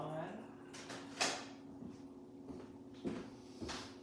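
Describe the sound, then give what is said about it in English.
A recently repaired drawer in a house is slid open and pushed shut, giving a few short scraping knocks and thumps over a steady low hum. “including fix the drawer.”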